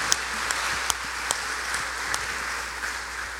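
Audience applause, a dense steady wash of many hands clapping with a few sharper individual claps standing out, sustained throughout at moderate volume with no talking, given for a woman who helped the speaker.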